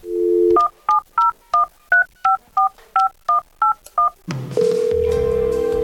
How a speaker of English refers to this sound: Well, you heard the dial tones, Father. You did. I'm sure of it. I did.